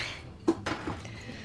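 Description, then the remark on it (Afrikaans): Two bright clinks of glasses of grape juice touching as two people toast, a quick pair about a fifth of a second apart, followed by a softer tap, over a quiet hum with no talking. “Cheers. Cheers.”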